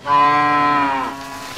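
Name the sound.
cows mooing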